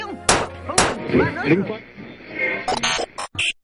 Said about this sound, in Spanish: Maldito comentario del DVD, otra vez se oye. Déjame darle unos golpes a ver si se arregla.